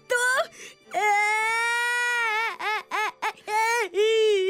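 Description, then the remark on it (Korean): Loud crying by the character Doggy Poo in a narrated children's story: a long drawn-out wail, then a string of short, choppy sobs before another wailing cry begins. No words are spoken. “강아지 똥이 울음을 멈추지 않자 흑덩이가 강아지 똥을 달래기 시작했어요.”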